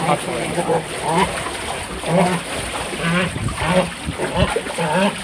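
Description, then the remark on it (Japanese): Cormorants thrash and splash in water as they are fed hasu, a river fish, at their enclosure in Uji, Kyoto Prefecture, Japan, with busy, irregular splashing and people's voices talking over the commotion throughout. “やばい、カッパ起きないとびしょびしょになるんですね。”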